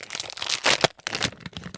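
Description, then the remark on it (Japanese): The plastic wrapper of a chocolate-coated ice milk bar made with 100% Hokkaido dairy is crinkled and torn open, a burst of dense, bright rustling with a sharper rip in the middle, followed by a few softer crackles. “種類別ってところにもアイスミルクと書いてありまして北海道産乳製品100%使用北海道ですよ皆さん絶対美味しいに決まってますね開けます”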